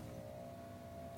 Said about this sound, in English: you're going to hear cars coming by and engines starting and stopping because we're still in Southern California